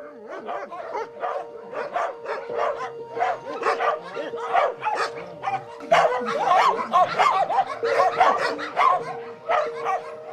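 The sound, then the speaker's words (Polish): Dogs bark nonstop in a dense, overlapping chorus, the sharp repeated barks mixed with higher yips and whines, loud throughout with no pauses, at a place keeping over 200 dogs, by a dog's kennel whose chain hangs on wires. “Tu jest takie druty sterczą, bo ten łańcuch jest na, na drutach, y, wszystko poprzewracane, a tu jest buda tego psa.”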